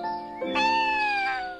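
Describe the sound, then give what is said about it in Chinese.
A kitten gives a single drawn-out meow, rising then slowly falling in a bright, clear tone with strong harmonics, lasting over a second with no one talking. “嗯，这是谁在叫啊？原来是小猫啊！”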